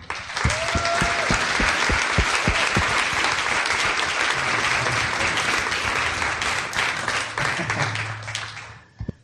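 A large crowd applauds steadily for a pastor and evangelist being introduced, dense clapping at a consistent level, with a few brief cheers or tones mixed in before the applause fades out at the end.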